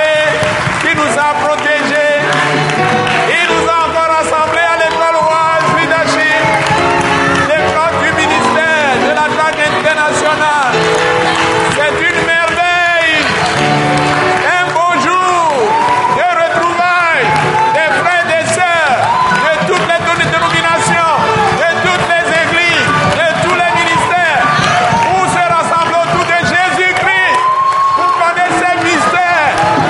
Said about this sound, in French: Acclamons très fort le Père Céleste qui est au milieu de nous. Le Dieu trois fois saint, le Père Céleste, le Père de notre Seigneur Jésus-Christ. Acclamons très fort ce Père qui nous a gardés